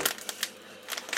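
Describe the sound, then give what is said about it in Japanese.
Crinkly rustling of a plastic bag of bought coffee being opened and handled at home, coming in several short, bright bursts separated by brief pauses, with no talking. “なのであれですねもうついに家ですいませんねちょっとガサガサやって”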